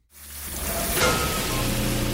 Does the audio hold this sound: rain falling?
yes